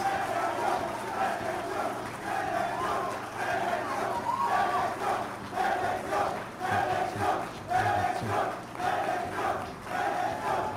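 A large crowd applauds, cheers and shouts continuously after the president of El Salvador announces he will run for the presidency, a dense roar of many voices with rhythmic chanting surges, loud and sustained throughout.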